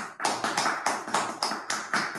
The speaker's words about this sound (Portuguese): Salva de palmas